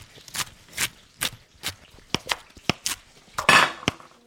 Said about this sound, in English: Now, on our brioche roll, we're going to be putting lettuce, pickles, and Hellmann's spicy mayonnaise. Let me chop those up now.